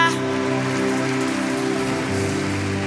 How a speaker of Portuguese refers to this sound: Aplauda esse Deus que faz. Aplauda esse Deus que faz. Aleluia.